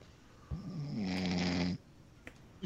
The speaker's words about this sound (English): What's wrong, y'all? You're snoring. Man. Yeah, man. we heard you snoring.